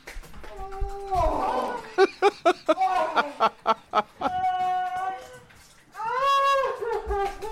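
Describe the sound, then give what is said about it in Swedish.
Danish women howl and wail in long, wavering, high-pitched cries, broken by a run of short, rhythmic yelping bursts, with a brief noisy splash-like rush early on, like someone paddling in a small paddling pool. Fairly loud. “Danska kärringar som bara ligger och vrålar samtidigt som det låter som att någon paddlar i en liten plaskdamm typ.”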